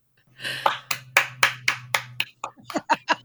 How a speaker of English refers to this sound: clap for that.